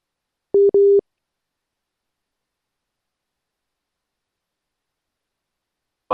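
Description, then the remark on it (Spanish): Two short, steady mid-pitched beeps of a busy tone right after a live on-air radio phone call drops, followed by several seconds of silence and a brief burst of noise at the very end. “Oh, se cortó.”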